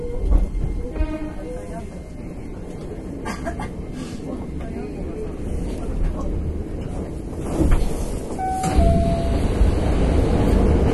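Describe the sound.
A Hankyu 9300 series Kyoto Line limited express train running from Kawaramachi to Osaka-umeda with a continuous low rumble and rolling roar. A few brief tonal squeals and rattles rise over it, and there are faint voices and onboard announcements, including for Awaji station.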